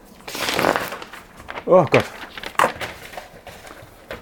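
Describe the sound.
A loud clatter as a stack of papers and objects shifts and tumbles for about a second when a single sheet of paper is pulled out of a pile, followed by a startled exclamation and a few softer knocks.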